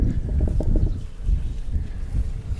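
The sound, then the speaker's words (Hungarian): Steady wind buffets the microphone with a deep, rumbling roar that swells and dips unevenly, fairly loud, with no voices over it. “Sarok mögé, mert fúj a szél.”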